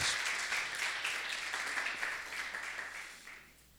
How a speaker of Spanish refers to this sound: Póngase de pie, por favor, y déle un aplauso a la palabra del Señor.